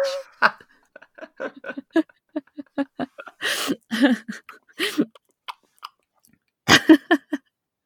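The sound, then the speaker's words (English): Someone imitates chewing a sandwich with their mouth, producing wet smacking and munching sounds in a steady rhythm, with a few louder, breathier bursts mixed in and no talking. “Loads of people are switched off now who can't bear that. Can't bear chewing.”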